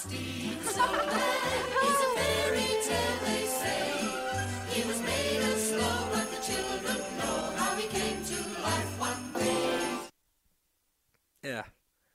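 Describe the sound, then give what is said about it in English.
A Christmas song plays loud and full, with singing over a steady, pulsing bass beat, then cuts off abruptly, followed by a brief sound after a short silence. “But then they lose me with supposedly, again, ostensibly, allegedly, the number one most dangerous Christmas song to listen to in the car if you're driving. It's this one.”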